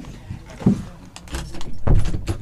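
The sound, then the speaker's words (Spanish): A door that had been left open is pushed shut, with a rattle of the handle and a short shuffle before a solid closing thud toward the end; no one speaks. “Perdón, estaba la puerta abierta.”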